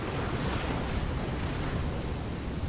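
A heavy rainstorm in stormy weather at sea in the Bay of Biscay pours in a dense, steady roar with a deep rumbling undertone, loud throughout, with no voices.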